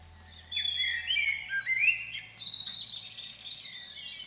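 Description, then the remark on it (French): Several birds sing at once in a lively dawn chorus over misty wetlands in a river valley near Amiens, France: overlapping high whistles, trills and chirps, with a faint low hum underneath and no voices. “À l'aube, quand la brume floute le paysage, le règne musical des oiseaux commence.”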